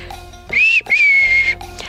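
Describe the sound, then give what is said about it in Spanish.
A person whistles two clear, loud notes to call a dog: a short rising one, then a longer steady tone that dips slightly at the end, with no talking. “Yo en lo personal no soy muy buena silbando, entonces no tengo muchas opciones, pero un silbido que he usado mucho con mis animales es este sonido.”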